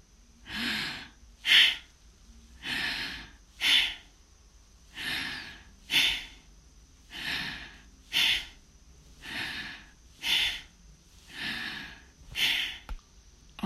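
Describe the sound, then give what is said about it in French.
Slow, deep abdominal breathing in and out, the belly pushed forward on each inhale and pulled in on each exhale, each a distinct airy rush, repeating steadily about six times. Fairly loud, with no talking. “Poussez le ventre en avant, inspirez. Rentrez le ventre, expirez.”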